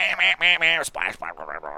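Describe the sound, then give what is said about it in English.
A voice imitates a duck, letting out a quick string of about eight nasal quacks, the first few loud and drawn out, the rest shorter and slightly softer, with no other sounds. “You know that you know that crazy duck sounds.”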